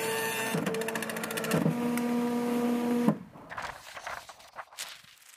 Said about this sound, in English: silence, until a single piece of paper aggressively and noisily prints out and falls to the ground.